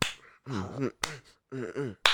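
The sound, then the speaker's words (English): Three sharp, loud claps about a second apart, a scene sync clap for a video recording, with a voice making two short drawn-out vocal syllables in each gap between claps. “All right, you can do a scene clap whenever.”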